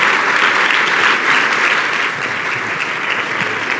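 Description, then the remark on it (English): A crowd applauds steadily for speakers Dr. Gabrielle Walker and Dr. Gail Bradbury, a dense wash of many hands clapping at once, loud and sustained throughout with only a slight dip in intensity toward the end. “Let's hear it one more time.”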